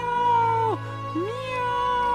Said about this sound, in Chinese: 他们来到了一个池塘边，几百只猫，几千只猫，几百万只猫，几千万只猫，几亿万只猫一起叫起来：“喵，